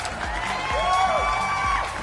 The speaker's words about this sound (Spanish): Qué bien. Aplausos a